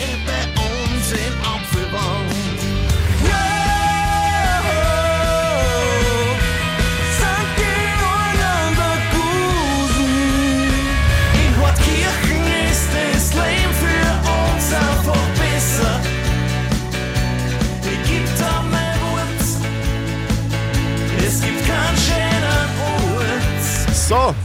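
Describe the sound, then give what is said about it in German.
A full, loud Live Radio custom municipality song, made for a municipality in Upper Austria, plays continuously with steady instrumental backing, a clear melodic lead line and pounding drums, upbeat and produced like a radio jingle, with no talking over it. “Wir schenken allen 438 Gemeinden in Oberösterreich einen eigenen Live-Radio-Gemeindesong. Hört sich so an ungefähr.”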